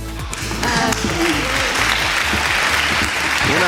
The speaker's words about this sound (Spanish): aplauso, sí señor, señor.